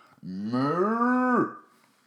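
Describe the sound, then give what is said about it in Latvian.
A person does a single, drawn-out cow moo impression, about a second long, rising slightly in pitch before dropping off abruptly. It is loud and heard alone. “Nemāku, es gobu māku labāk.”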